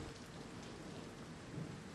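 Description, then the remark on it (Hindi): Steady monsoon rain pours down in a continuous, dense hiss with a faint low rumble beneath it, soft and even throughout with no voices. “कुछ देर बाद बारिश बंद हो गई और मैं सो गया”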